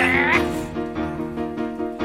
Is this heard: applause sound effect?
no